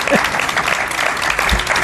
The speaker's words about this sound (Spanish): Te das cuenta de que a las 11 se aplauden más que a las siete y media de la mañana.